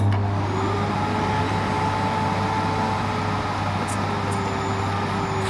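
A small vacuum cleaner belonging to John Fishman runs steadily with a constant whirring motor hum and airy rush, moderately loud, with no pauses or changes in pitch.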